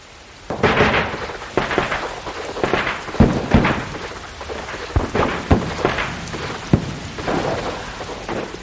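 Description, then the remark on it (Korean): Steady heavy, cold rain pours down under low iron-gray clouds in a dense hiss, with sharp cracks and low rumbles of thunder breaking through every second or so. No voices. “어쩌다 한나절씩 빗발을 긋는 것으로 하늘은 잠시 선심을 쓰는 척했고 그러면서도 찌무룩한 상태는 여전하여 낮게 뜬 그 철회색 구름으로 억누르는 손의 무게를 더 한층 단돌이 하는 것이었고 그러다가도 갑자기 하마터면 잊을 뻔했다는 듯이 아기의 찬 빗줄기를 주룩주룩 흘리곤 했다.”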